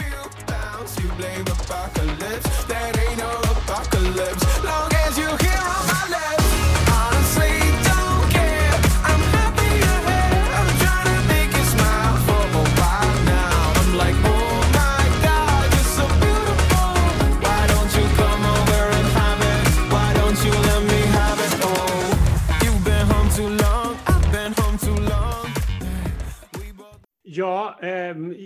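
An upbeat hip-hop and R&B-tinged pop song, Czechia's entry in the Eurovision Song Contest, with a thumping beat and steady bass that kicks in after a few seconds, layered with vocals and synths, playing loud and full before cutting off abruptly near the end.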